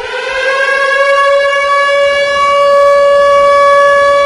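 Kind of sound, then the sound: signal or alarm, civil defense warning siren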